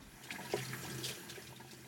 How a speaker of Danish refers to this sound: Det er det her med god hygiejne. Vask nu hænder.